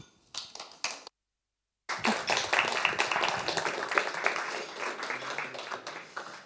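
A few scattered claps, then a short silence before an audience at Litteraturhuset breaks into sustained, dense applause that continues steadily to the end, fairly loud, as a speaker comes up on stage.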